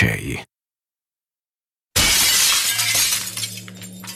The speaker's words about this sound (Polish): dźwięk najpierw pękającej, następnie zaś tłukącej się na tysiące szklanych drobinek szyby. Przeszył okolice niczym błysk bezchmurne niebo.